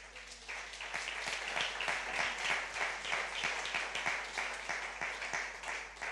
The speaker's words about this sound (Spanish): Amén. Denle un aplauso a Dios. Venga.